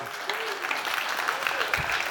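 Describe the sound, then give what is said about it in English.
Audience applause, a steady wash of many hands clapping at moderate volume for a couple of seconds to welcome returning guests, with faint voices mixed underneath. “You can clap them, but not for too long”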